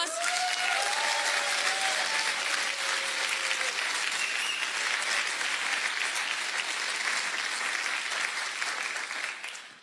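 Sustained audience applause, a dense wash of clapping holding steady for nearly ten seconds before tapering at the end, with a few faint whistles or cheers early on.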